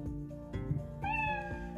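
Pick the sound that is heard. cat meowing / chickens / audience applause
cat meowing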